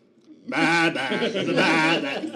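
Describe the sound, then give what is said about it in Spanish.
Goats bleat loudly in long, wavering, sustained cries that follow the melody of a TV theme tune, rising after a brief quiet start and carrying on without a break. “la versión que a mí más me gusta del tema de Game of Thrones es el de las cabras”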